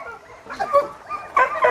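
A dog gives two short, yappy barks about half a second apart, moderately loud, with no one talking over them.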